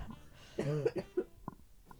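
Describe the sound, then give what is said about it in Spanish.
A harsh cough bursts out, followed by a few shorter throaty coughs and clearing sounds trailing off over about two seconds, with no talking. “Uf, esa, esa, tos.”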